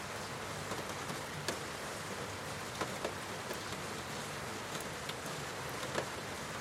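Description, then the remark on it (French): Steady rain falls outside as a dense, even hiss, with occasional sharper drops or taps standing out now and then. Nobody speaks. “Hypnose pour s'endormir sous la pluie”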